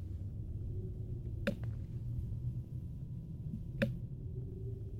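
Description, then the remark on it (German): A quiet, dark dungeon ambience: a low steady rumble with faint wind running throughout, broken by two brief, sharp rattling clicks a couple of seconds apart. No one speaks. “Im Hintergrund wird jetzt die, die Dungeon, der Dungeon Ambient Sound wiedergegeben. Da hört man so ein bisschen Wind”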